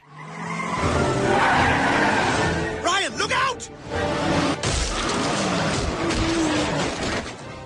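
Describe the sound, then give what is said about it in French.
A car arrives at high speed where a street hockey game is being set up, its engine roaring, tires screeching in a wavering squeal midway, followed by a sharp thump and continued loud engine and road noise, with voices mixed in. “une voiture arrive à toute berzingue, et là, c'est le drame.”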